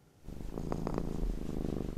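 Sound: domestic cat purring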